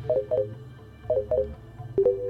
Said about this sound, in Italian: Qui vuol dire fuori pista. Sentite. Fuori pista e quest'ultimo è il segnale che fa quando si rientra in pista.